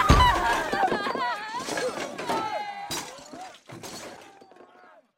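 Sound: glass shattering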